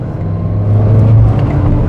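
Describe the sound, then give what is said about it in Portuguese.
A Chevette car engine rumbles with a steady low drone that swells slightly in the middle, as if the vehicle is passing or accelerating gently. No voices. “Agora tem um Chevette com massa.”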